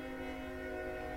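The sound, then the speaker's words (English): A train horn blares steadily in a sustained, chord-like tone over the low rumble of a train running right next to an office, loud and continuous for the whole moment with no one speaking. “Sorry, you're hearing the noise in the background.”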